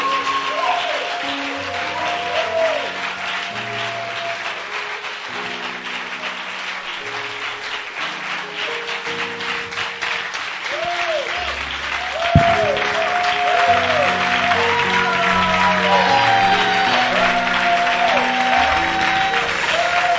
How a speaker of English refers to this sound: Celebrate him. Wow. Keep clapping your hands for Jesus.